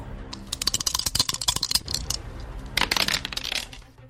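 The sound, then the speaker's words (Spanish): A die clatters and rolls across a hard surface in a quick burst of sharp clicks and rattles, pausing briefly before another flurry of tumbling taps, close and fairly loud with no voices. “Así que lanzamos el dado.”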